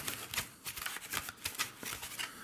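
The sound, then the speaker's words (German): Quick papery clicks and flaps repeat in an irregular rhythm, fairly quiet, like a folded paper fortune teller being snapped open and shut over and over. “Freunde, hier hört ihr den Schnapper.”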